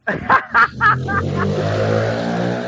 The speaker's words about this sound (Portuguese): Olha a moto! Última moto do, do ano de 2020. Não, até o final desse cast vai aparecer mais moto.